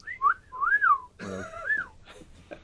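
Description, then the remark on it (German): A wolf whistle, the so-called playboy whistle: two quick, clear whistled swoops that rise and fall in pitch, followed by a short burst of voice-like vocal sound with no clear words. “konnte mir erst nichts unter dem Playboy Pfiff vorstellen. Den Playboy Pfiff, genau.”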